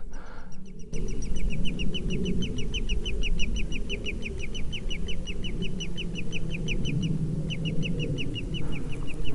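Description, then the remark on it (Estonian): Cranes call in a long, rapid run of repeated high notes that carries on almost without pause, with one short break, over a steady low rumble, heard during a hike through a bog in Estonia. No one speaks. “oi, mingid kured ja”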